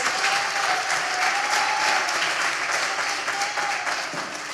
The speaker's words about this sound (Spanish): Si ese aplauso es para Jesús, dalo con todas tus fuerzas.